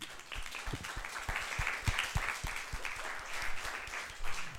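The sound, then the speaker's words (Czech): A crowd applauds steadily after an on-stage role-play demonstrating manipulation techniques used on a scam victim, many hands clapping in a dense, crackling wash that holds at a moderate level throughout, with a few sharper individual claps standing out. “díky, prosím, potlesk.”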